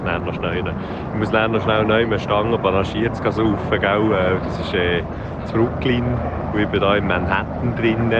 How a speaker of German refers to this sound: falls du fragst, was das ist, was du da hörst, das ist der Helikopter, der mich dann vom abholen muss.